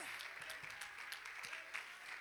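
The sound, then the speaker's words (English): An audience claps hands as a shout of praise to God during a sermon, in a dense, steady wash of overlapping claps with sharper individual claps popping out, mixed with faint crowd voices and cheering. “Oh, somebody clap your hands and lift up a shout of praise to your God.”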